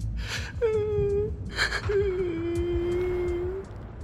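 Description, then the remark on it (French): Soft, whimpering sobs: sharp gasping breaths followed by long, quavering wails, repeated twice, fairly quiet. It sounds like a voice imitating someone crying. “Elle tendit l'oreille au-delà du silence qui l'entourait jusqu'à percevoir des sanglots presque inaudibles.”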